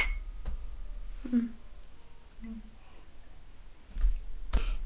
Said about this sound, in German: Man hört die Wassergläser heute raus.